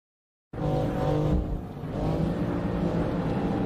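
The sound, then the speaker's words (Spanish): An M2 Competition sports car engine roars loudly after a brief silence, revving and pulling hard with a throaty, sustained drone that dips briefly before climbing again, continuous with no voices. “Un M2, un M2 Competition. Y el sonido y todo, la verdad que está bastante conseguido.”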